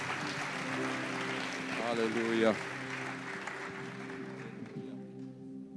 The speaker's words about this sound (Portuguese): Dê uma salva de palmas ao Senhor Jesus por tudo aquilo que ele fez. Aleluia.